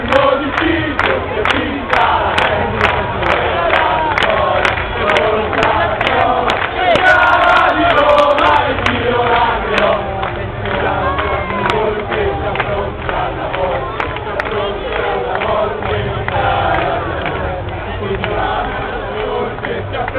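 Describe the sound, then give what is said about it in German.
A large crowd of Florentine football fans in Italy chants and cheers steadily, a dense roar of many voices with rhythmic claps or stamps cutting through at a regular beat, recorded on a small portable recorder. “Also wie ihr hört, langsam kommt das italienische Temperament dann doch wieder durch.”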